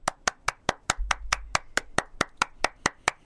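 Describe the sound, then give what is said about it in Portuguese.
A man slaps his own bare belly about fifteen times in a quick, steady rhythm, each smack sharp, with a brief low thump partway through and no talking. “Vou até dar um tapa na, tapinha na pança, tapinha na barriga”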